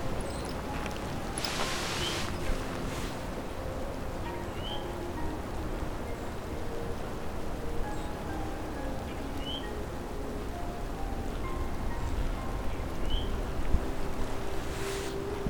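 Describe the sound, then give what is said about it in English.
A soft, steady hiss of falling snow fills the scene, low and continuous throughout, with a few faint bird chirps and ticks scattered above it. Nobody speaks. “So you can hear the snow falling”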